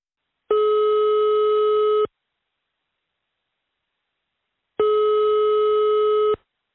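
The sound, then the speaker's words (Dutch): A telephone ringback tone sounds twice while a call is placed to the administrator of a website, each steady electronic burst lasting about a second and a half, separated by a long silent gap, clear. “De site wordt gerund door iemand die dat niet onder zijn echte naam doet, maar die ik, nadat ik een mailtje stuur, wel mag bellen.”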